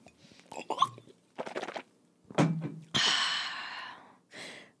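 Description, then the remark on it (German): Loud breaths and sharp gasps right into the microphone, several bursts in a row, some raspy and sighing, with short silent gaps between and no words spoken. “Einfach auch mal nur so atmen und Geräusche machen.”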